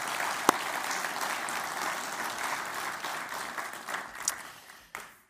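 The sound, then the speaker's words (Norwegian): An audience applauds steadily to thank those who led the worship singing, a dense wash of many hands clapping together, holding level for several seconds before thinning out and stopping. “Og Jeg syns vi skal oppmuntre dem med en klapp og en takk.”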